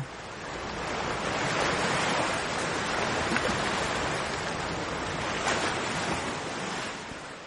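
Ocean waves break on a beach in a steady, roaring wash of surf, swelling gently now and then, with no voices, only the continuous rush of water.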